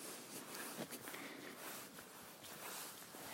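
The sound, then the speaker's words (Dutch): Quiet, soft footsteps of people walking past, a few faint irregular steps over a steady low background hiss, with no talking. “En het is voor mij ook weer een uitdaging om, eh, ondanks dat er wat mensen voorbij lopen, dat ik me gewoon blijf focussen op de podcast en op wat ik wil vertellen.”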